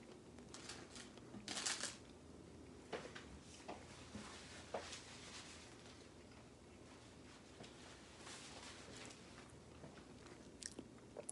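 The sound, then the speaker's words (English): A bite into a grilled chicken sandwich, with a louder crunchy burst near the start, followed by steady soft chewing and scattered crackly clicks. Nobody speaks. “I'm gonna take a a bite of the grilled chicken sandwich.”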